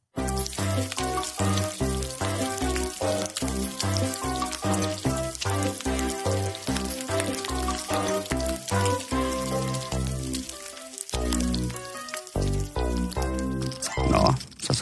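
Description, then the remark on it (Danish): Bacon sizzles and crackles loudly in a frying pan, a continuous hissing spatter running for the whole stretch, layered with steady tonal, grunting sounds and no talking. “du måske lige der og fik lyst til at stege lidt bacon i aften, kære lytter.”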